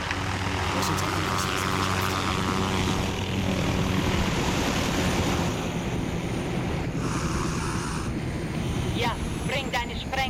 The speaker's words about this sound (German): Barkov schickt Helikopter. Wenn wir sie ausschalten, werden mehr Truppen auf der Basis kommen.